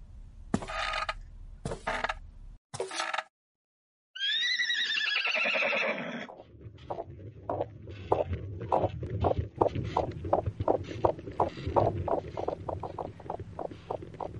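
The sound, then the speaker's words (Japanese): A few short rustling bursts, then a horse gives a loud, wavering whinny that falls in pitch, followed by a steady, rhythmic clip-clop of hooves as a horse-drawn carriage moves along. “準備が整いました馬車にお乗りください”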